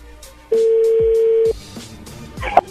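A telephone dialing tone as a call is placed again from a radio program: one steady, mid-pitched electronic tone holding for about a second, then a short faint beep near the end, with no talking.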